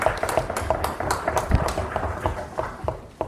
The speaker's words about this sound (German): Und dafür gebührt dir ein Applaus.